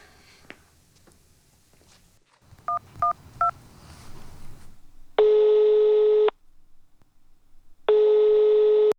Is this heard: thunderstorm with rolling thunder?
no